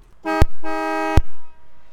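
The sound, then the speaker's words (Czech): Two honks from the horn of a 1947 Chevrolet car in a forest, a short blast followed by a longer one, loud and brassy with a rich stack of harmonics, each ending in a thump, with no talking. This horn sound was also heard in the film The Godfather. “Tak i tento zvuk bylo možné slyšet ve filmu Kmotr od Chevroletu z roku 1947”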